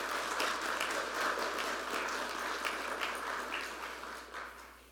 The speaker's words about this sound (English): Um, so, for that, all of those people that have been mentioned, if we could just say in a round of applause, uh, thank you, because it made this a better experience.